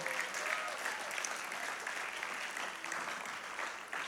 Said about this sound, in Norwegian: Den skrev jeg på do. Nå kan du klappe. Jeg er fornøyd med den.